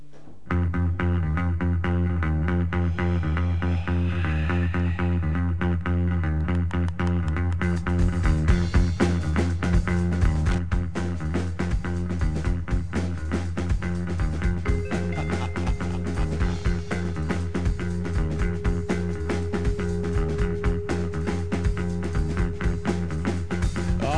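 A rock band from Dijon plays a dense, distorted guitar riff that holds steady, then pounding drums kick in partway through and the full band drives on loudly without any vocals.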